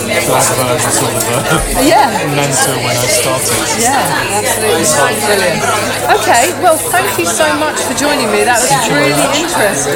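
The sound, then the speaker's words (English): Busy coffee bar chatter fills the background, a steady babble of many voices and clatter beneath two people talking and laughing. “that coffee bar was much noisier than I expected.”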